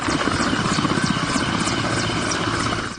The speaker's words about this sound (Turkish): Tansiyon yükselirken Rus helikopteri alçak uçuş yaptı. Kontrol noktasındaki Amerikan askerlerini toza boğdu.